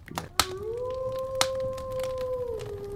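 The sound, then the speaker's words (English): A single long wolf howl in the north rises quickly, holds a steady mournful pitch for about two seconds, then slides down and fades, with a few sharp clicks and low background rumble. “With the howl of the of the wolf in the north, that draws a close to uh, this week's episode.”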